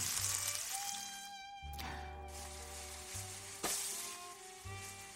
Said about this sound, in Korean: 전 부치는 소리예요